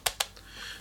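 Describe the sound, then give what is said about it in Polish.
Two sharp, hollow taps on the hard plastic casing of a Smarton SM 2006 radio in quick succession, then a fainter third tap, dry with a light clicky tone and quiet background noise between. “Jeszcze radio powiem, brzmi tak, jakby ktoś nie wiedział, chciał. To jest taki plastik.”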